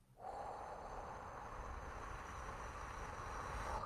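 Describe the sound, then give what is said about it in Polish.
Controlled breathing for an evening breathing exercise with a shorter inhale and a longer exhale: one long, steady, airy exhale that carries on evenly for several seconds, heard alone without any talking. “I wieczorami to robi się krótszy wdech, a dłuższy wydech.”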